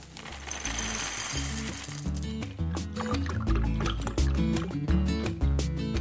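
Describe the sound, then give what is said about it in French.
Milk and cereal pour into a bowl: a steady, gurgling liquid stream with crisp, rattling flakes tumbling in, continuous for several seconds with no voices. “Je vais prendre un bol de lait avec des céréales.”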